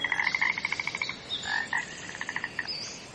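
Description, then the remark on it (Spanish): Toads croak in a rapid, pulsing trill, a quick train of evenly spaced calls that pauses briefly and resumes, clear with no voices present. “Era una vez una carrera de sapos.”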